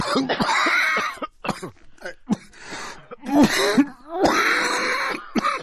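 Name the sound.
repeated coughing fit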